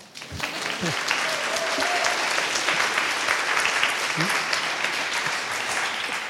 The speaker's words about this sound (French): Bienvenue Sébastien, sous vos applaudissements.